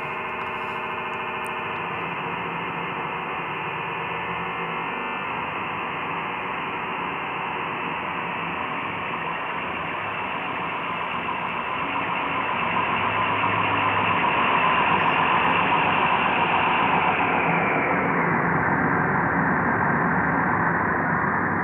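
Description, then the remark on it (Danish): A harsh, buzzing synthesized tone made by frequency modulation synthesis, three sine tones modulating each other, drones steadily for about twenty seconds, loud and dense, growing slightly brighter midway before its upper edge dulls near the end. “Det er bare tre sinustoner, men de kan lyde af enormt meget. Bare ved, at man lader dem modulere hinanden.”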